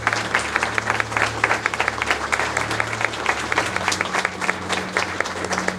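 A crowd at a library applauds steadily for the library's former director, many hands clapping in a dense, even patter that holds at a fairly loud level throughout, with a low steady hum underneath.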